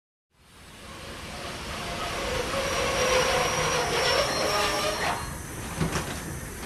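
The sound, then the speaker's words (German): A train rumbles steadily through the main station in Ingolstadt, its broad mechanical roar swelling and then easing, with a faint metallic squeal of wheels and a few clanks near the end. Nobody speaks. “der Hauptbahnhof in Ingolstadt. Hier ist jeden Tag viel los, gerade auch in Zeiten von Corona.”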